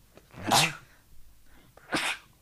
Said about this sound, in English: Bless you.